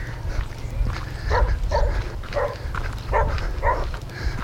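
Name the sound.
dogs barking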